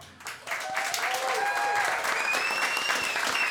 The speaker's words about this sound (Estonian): ja nendele inimestele teeksimegi kõigepealt esimese suure aplausi ja inimesed ise võivad ka endale suure aplausi teha